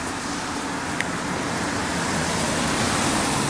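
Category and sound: vehicle, road traffic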